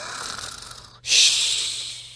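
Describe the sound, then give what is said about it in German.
A person imitates loud snoring: a raspy, rattling inhale for about a second, a brief pause, then a loud, breathy exhale that slowly fades. No one talks. “So schnarchst du so feste.”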